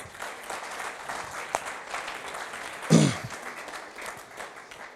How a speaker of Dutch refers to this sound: Applaus.